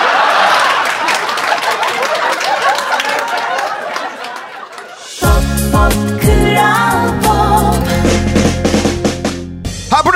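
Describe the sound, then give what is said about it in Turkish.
On Kral Pop Radyo, a crowd breaks into applause for the speaker's wife, with scattered laughter and chatter for about five seconds, then the clapping gives way to loud music with steady beats and tonal melody. “Yaşam destek ünitem çok kıymetli eşim için bir alkış rica ediyorum millet.”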